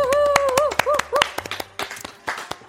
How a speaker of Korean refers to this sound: 먼저 박수부터 쳐볼까요?